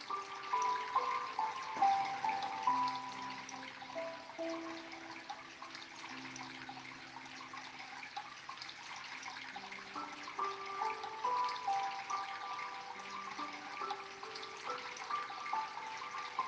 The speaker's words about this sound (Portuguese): Sinta que você está à beira de um riacho. ouça a água caindo por entre as pedras.